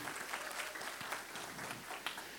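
A crowd applauds steadily, many hands clapping in a dense, crackling patter that holds an even level throughout, with no voices standing out.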